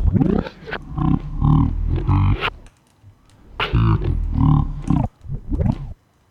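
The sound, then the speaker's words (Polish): Slow audio scrubbing in an audio editor, as the cursor is moved slowly with the arrow keys, drags a recorded voice into deep, stretched, growling smears: two long passes with a short gap between them, fairly loud, with no clear words. “To jest trochę tak, jakbyśmy mieli taśmę w magnetofonie i ją bardzo powolutku przesuwali, ale ta taśma była przez cały czas w głowicy, więc było słychać co robimy.”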